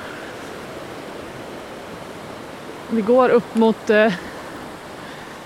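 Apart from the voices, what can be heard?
roar of a waterfall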